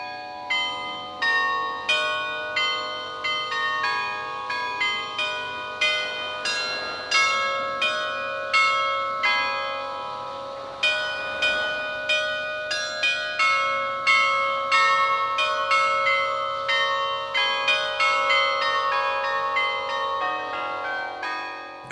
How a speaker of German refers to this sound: Und weil das Glockenspiel so einfach ist, macht man es auch nicht immer gleich. Sonst würde eine gewisse Langweile oder äh, Wiederholung aufkommen. Und das macht es spannend, immer wieder etwas anderes zu machen.